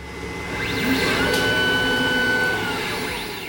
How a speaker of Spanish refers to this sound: sonidos que son característicos, como por ejemplo la alarma de un timer o el sonido de apertura de nuestra máquina de QPCR, de nuestra PCR más nueva que tenemos en el laboratorio y que hace sonidos como ese. Venga, lo voy a meter otra vez.